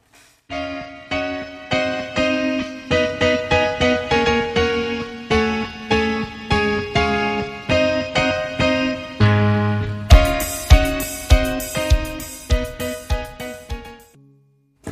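A rock track with fast, busy lead guitar runs over a steady driving beat, loud and full. Heavier drum hits kick in near the end. No one is speaking.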